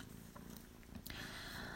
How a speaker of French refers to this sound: Il en peut plus le chat. Oh, il en peut plus. Il fait des ronrons. Oh oui. Oh, trop gentil celui-là.